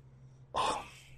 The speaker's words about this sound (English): Excuse me. Okay. Trying not to sneeze into the microphone. Please don't. My ears are sensitive.